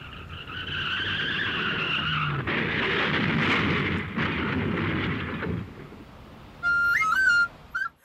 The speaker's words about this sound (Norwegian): Ja, men det er bare en postbil. Det kommer en bil. Det er en postbil.